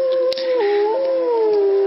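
wolves howling

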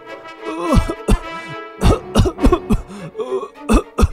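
coughing

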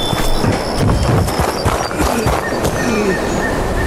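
footsteps

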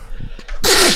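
sneeze

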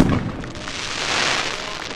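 fireworks exploding

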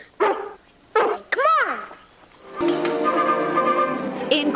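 dog barking

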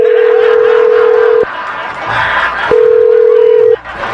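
telephone call being dialed

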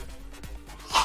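sneeze

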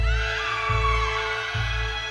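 scream

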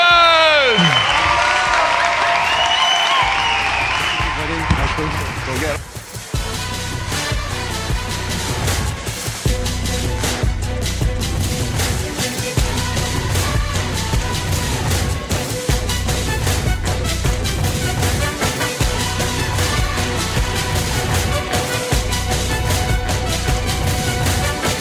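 audience applause and cheering

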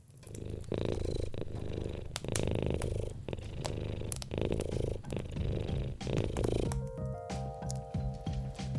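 cat purring

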